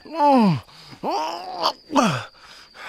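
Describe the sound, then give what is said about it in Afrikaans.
Muffled moaning of a man gagged with a cloth in his mouth: three strained groans in quick succession, each swelling and then sliding down in pitch, with brief pauses between them. “Haal tog die lap uit sy mond, dat ons kan hoor waaroor hy moun.”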